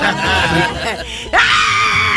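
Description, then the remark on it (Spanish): A woman lets out a loud, shrill, pig-like squealing scream, wavering at first, then jumping to a piercing, sustained higher pitch that holds to the end. “¡El grito de puerca!”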